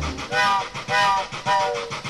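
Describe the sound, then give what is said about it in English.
The whistle of a little steam engine pulling a circus train sounds three quick, breathy blasts in a row, fairly loud, with a hissing, rumbling background underneath; the last blast sags slightly in pitch. “He's gotta get there, so hear his whistle blow.”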